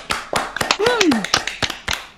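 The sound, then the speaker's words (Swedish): A short burst of applause from a few people, brisk irregular claps for about two seconds, with a brief falling vocal whoop partway through. “Bra där! Applåd!”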